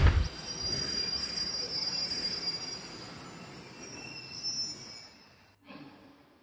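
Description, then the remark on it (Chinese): A train brakes after its brake is pulled, with a long, high metallic squeal over a steady low rumble of wheels, the screech holding for several seconds before cutting off, followed by a brief hiss. “于是胖虎捅了捅还愣在那儿的小夫，小夫拉下了刹车。”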